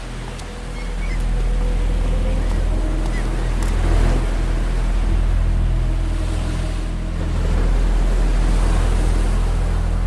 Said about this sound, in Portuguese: O som das ondas batem aqui nas pedras e abafa o seu grito.